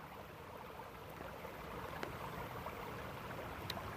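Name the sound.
flowing river water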